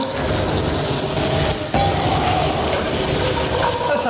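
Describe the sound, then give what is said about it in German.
Three kinds of vegetables sizzle loudly and steadily as they are fried in a pan, a dense crackling hiss that briefly dips for a moment before surging back at full strength. “So, in der Pfanne braten wir jetzt auch das Gemüse an.”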